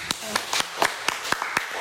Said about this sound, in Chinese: 你从来到现在师母的课第一次分享，再给一个掌声。